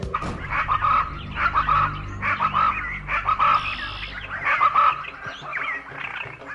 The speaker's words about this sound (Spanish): Ya empezaban a desanimarse cuando de pronto escucharon muy cerca el canto inconfundible del pájaro brujo con su sonido característico.